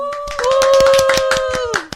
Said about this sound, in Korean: 여기서 박수 한번 치고 갈까요?